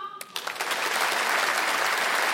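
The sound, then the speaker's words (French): A crowd bursts into applause after a brief moment, the clapping swelling quickly into a dense, steady roar of many hands that fills the room and holds loud to the end. “Et alors Il y a des hommes ce soir dans la salle par applaudissement”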